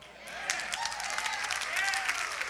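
A crowd applauds steadily, many hands clapping in a dense, continuous patter that holds at an even level for a couple of seconds, with a few whoops or voices mixed faintly underneath.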